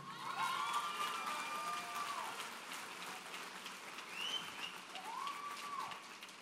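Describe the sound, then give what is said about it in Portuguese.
A large crowd claps loudly and steadily for several seconds, applauding God, the dense applause filling the room, with a few high whistles or whoops rising above it. “Aplauda ele aí bem fortão aí.”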